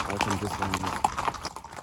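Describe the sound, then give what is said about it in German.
Hooves of a chestnut racehorse with a pale blaze and blond mane, a Derby winner, clip-clop at a steady walking rhythm as it comes over from the racing stable, moderately loud, while a person talks over the sound. “Ein Fuchs mit einer hellen Blässe und einer blonden Mähne.”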